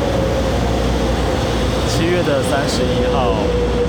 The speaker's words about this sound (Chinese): 这是区间车驶进车站的声音。